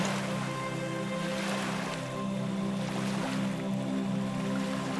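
A steady wash of turquoise ocean waves rolls onto a white sand beach lined with green palms, continuous, with a soft sustained tonal hum beneath and no voices.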